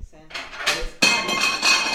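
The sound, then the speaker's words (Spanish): A cat knocks over dishes and cutlery: an uneven rattle, then a sudden loud crash with bright metallic jangling and clinking that rings on in a few overlapping bursts. “No rompa, no rompa. Se puso nervioso.”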